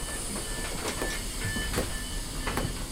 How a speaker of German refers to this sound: Ich sitze auf einem bequemen Sitz, als wir in den Darmstädter Hauptbahnhof einrollen.